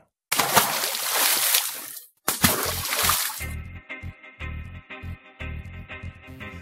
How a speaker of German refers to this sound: Ja, das war also äh, ein Stein, der ins Wasser gefallen ist. Und zwar nicht äh, in den Tiefspüler, also, sondern. Hört sich aber fast so an wie beim Tiefspüler.